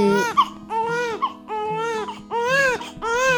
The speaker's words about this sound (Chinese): 增产报国而已啦，这真的是我家宝宝的哭声哦。